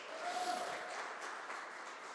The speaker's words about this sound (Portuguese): Então, ó, primeiramente que se você está aqui nesta manhã, eu já posso louvar a Deus porque você está preocupado em escrever uma história com Deus e aplauda Jesus bem alto por conta disso, amém?